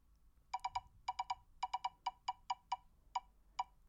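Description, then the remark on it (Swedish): A digital spinning wheel ticks with sharp, bright electronic clicks, quick at first and then spacing out steadily as the wheel slows to a stop. There is no talking. “det här är digitalt så det låter för jävligt när man snurrar, Men, men ni får leva med det ett, ett tag i alla fall.”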